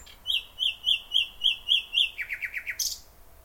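A nightingale in the Tiergarten in Berlin sings a clear phrase: a run of about seven evenly spaced whistled notes, then a quicker series of lower chirps ending in a sharp high flourish, alone.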